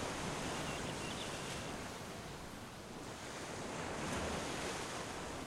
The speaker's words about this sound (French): Entends-tu le bruit des vagues C'est un son si doux à l'oreille, tu ne trouves pas